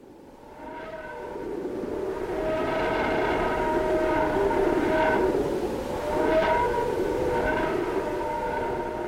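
A sonification of solar radio emissions from very high-energy electrons along magnetic field lines extending from the Sun: sustained, breathy whistling tones like air blown through pipes, swelling and fading every second or two over a steady hiss, with no voices.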